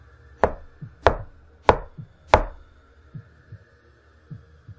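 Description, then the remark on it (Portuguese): Four firm, evenly spaced knocks on a wooden hotel room door ring out, followed by a few softer, duller thuds trailing off in the quiet. “No instante que o ponteiro dos relógios apontaram em direção ao norte, ouviram o um som de madeira e um batido na porta.”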